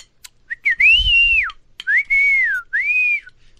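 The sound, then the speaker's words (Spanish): A person on a ranch whistles loudly to call across it, in three long, arching calls, each rising then falling in pitch, with short gaps between. A brief low rumble sits under the first call; no one speaks. “Porque allá gritos, güey, o chiflidos.”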